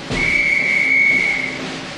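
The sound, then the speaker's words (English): A drum major blows a single long, shrill whistle blast to a marching band, holding one steady high pitch for about a second and a half, loud, then cutting off, leaving faint background noise. “The drum major is going to blow his whistle now.”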